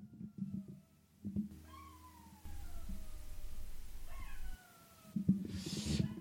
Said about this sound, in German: Der Hund heult übrigens immer noch. Wollt ihr es hören? Kleinen Moment.